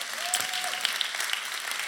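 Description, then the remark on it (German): A church audience applauds steadily to greet one another, a dense wash of many hands clapping at an even level. A brief faint whistle-like tone rises and holds early on. “Hey, lasst uns nochmal gegenseitig einfach nochmal einen Applaus geben, und einfach gegenseitig begrüßen.”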